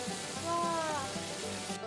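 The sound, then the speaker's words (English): Hot water and kiku petals, boiled a few minutes in water with vinegar, pour into a colander while a dish is prepared in Niigata, with a steady hissing splash that runs for about two seconds before stopping abruptly. “Pour it to a calendar.”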